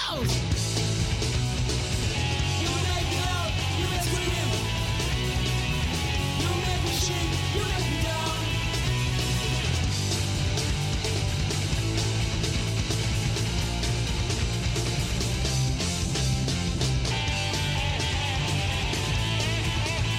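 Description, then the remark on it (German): A loud, raw French garage punk rock song from 1998 blasts steadily, with distorted guitars, pounding drums and thick bass filling the whole stretch, and shouted vocals buried in the dense, noisy mix. “Wir spielen die … mit … von 1998.”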